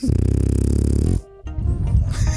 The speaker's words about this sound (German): Das ist der, das ist der Hund. Ist der, das der? Der kleine neue Hund.